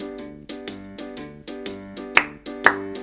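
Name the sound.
hands clapping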